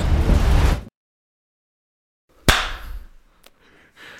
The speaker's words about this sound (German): Man muss gar nicht so laut klatschen. Ich krieg das schon raus, wo du da äh, geschlagen hast. Ich klatsche vor allem an der falschen Stelle.